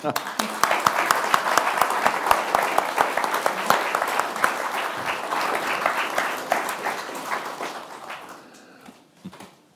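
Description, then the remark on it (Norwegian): A room full of people claps steadily for several seconds, dense and lively, then the applause thins out and fades to a few scattered claps near the end. “Men da eh, gir disse menneskene en liten applaus, og så får dere ordet.”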